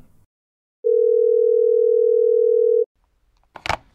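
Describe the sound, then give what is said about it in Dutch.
A single steady phone ringing tone sounds for about two seconds over silence, followed moments later by a short burst of clicking noise, as if the line is picked up, during a call to a mosquito researcher at Wageningen University in the Netherlands. “We gaan hem bellen.”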